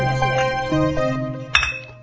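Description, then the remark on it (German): Glass Beck's beer bottles knock together once in a toast, a bright clink that rings briefly, heard over a steady humming tonal background with no talking. “Becks anstoßen, damit man es hört, weil wir nämlich unsere, unser anderes Getränk in einer Plastikflasche haben.”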